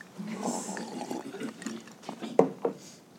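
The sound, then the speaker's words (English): Sounds of someone drinking water, with soft liquid noise, quiet shuffling, and two sharp gulps or clicks near the end. No one speaks. “I gotta get some water, man.”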